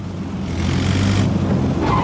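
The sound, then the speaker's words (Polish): A steady low engine rumble from an airplane passing overhead, moderately loud and continuous throughout, with a faint rising hiss near the end and no voices. “Czy ja słyszę samolot?”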